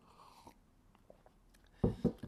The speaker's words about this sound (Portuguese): Indiferente, vou beber um golinho de limão para fazer uma pausa.